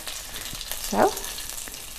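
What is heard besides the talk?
meat frying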